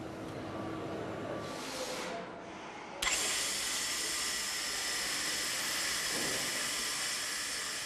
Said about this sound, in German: Wegen des damit verbundenen Funkenflugs trägt sie eine Schutzbrille. Und sie darf nicht nur in eine Richtung schleifen. Nur ein sogenannter Kreuzschliff garantiert, dass die Fläche später wirklich eben ist.